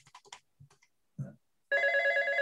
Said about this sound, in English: I'll let you uh, get that. Wait a minute, my phone's ringing. Can we cut this?